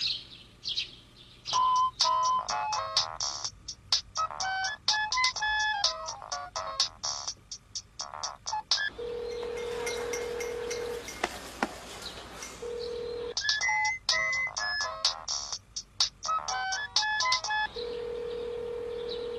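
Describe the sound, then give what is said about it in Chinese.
A mobile phone ringtone plays a rapid, bright electronic melody of short beeping notes, repeating in phrases, with a steady low tone and noisy wash sounding through the middle. No one speaks. “不接电话，真的要跟我绝交？”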